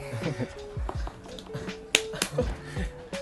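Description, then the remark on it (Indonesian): An audience slapping their feet at the speaker's invitation, a loose series of dull low thumps and sharper smacks scattered unevenly over a few seconds, with some voices murmuring underneath. “silahkan tepuk kaki”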